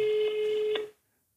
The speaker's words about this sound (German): Ich rufe jetzt meine Mutter an.